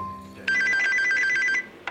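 A telephone rings with a bright, trilling electronic tone for about a second, steady and loud, then stops abruptly; a low hum sits underneath at the start.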